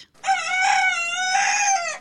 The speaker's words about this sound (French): Le coq Maurice en procès.